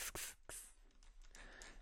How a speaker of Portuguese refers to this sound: Pronto, eu plantei isto até fui comprar este regador assim de spray